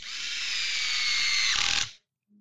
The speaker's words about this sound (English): If I hear that one more time, I'm going to take that electric drill and shove it where the sun doesn't shine the next time I see you.